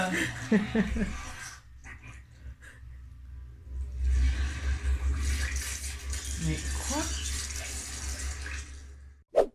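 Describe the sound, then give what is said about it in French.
Film sound effects: gagging, retching noises give way to a loud, sustained gush of liquid splattering, like someone vomiting heavily, with a few strained vocal sounds mixed in before it cuts off abruptly. “une fois qu'il y a eu toute cette séquence vomi”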